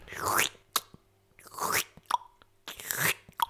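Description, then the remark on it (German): A person vocally imitates someone licking postage stamps: three slurpy, smacking sounds, each a swelling wet swipe ending in a small click or pop, fairly loud with short pauses between. “Da leckt jemand wohl die Briefmarken an.”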